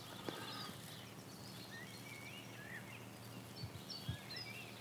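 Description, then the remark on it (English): A willow warbler sings faint, twittering phrases over quiet outdoor ambience, with a few soft low thuds and no voices. “Everywhere you look, there's there's life, there's insects, there's birds calling. Here a willow warbler.”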